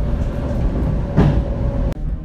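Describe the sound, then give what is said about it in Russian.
Steady low rumble and a thin motor whine of an electric commuter train heard from inside as it pulls into a station, with a brief rattling surge midway and a sharp clunk near the end. “А, не знаю, будет очень, мне кажется, слышно звуки электрички, но не знаю, многих звуки поезда успокаивают, меня в том числе.”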